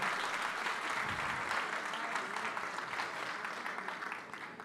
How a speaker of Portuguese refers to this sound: Se eu fosse você agora, dava um aplauso ao Senhor Jesus pela, pela vitalidade.